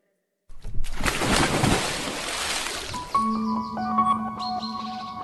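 A sudden, loud splash of water hits close by and washes out for a couple of seconds, then bright ringing tones chime in over the fading spray. No one speaks.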